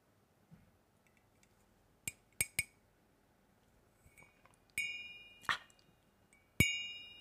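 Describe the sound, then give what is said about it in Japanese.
A series of bright, ringing clinks from a Baccarat crystal glass holding fully melted ice, several sharp taps with sustained shimmering tones that decay slowly, with no talking. “もうすっかり氷の溶けた。”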